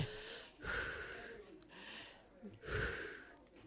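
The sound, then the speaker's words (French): Loud, exaggerated breathing in heavy gasping bursts, like two people panting in unison in a mock panic attack with hyperventilation. Strong inhales and exhales come about every second and a half, with no speech. “vas-y, respire en même temps que moi.”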